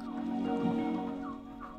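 Steady turkey clucking and low murmuring calls from a flock of turkeys eating green fodder, with a few brief higher-pitched notes rising over the continuous chatter; no one speaks.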